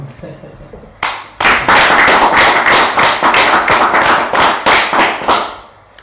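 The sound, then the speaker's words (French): Loud audience applause thanking and congratulating the event's guests breaks out after a quiet second, a dense wash of many clapping hands with rhythmic surges, sustained for several seconds before tapering off at the end. “On peut les remercier en les félicitant. Hein. Merci beaucoup. Et en les applaudissant.”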